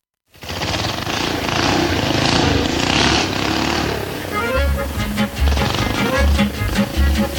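Several motorcycle engines roar loudly together in a dense, steady drone, then break into repeated revs whose pitch rises and falls in short bursts. No one speaks.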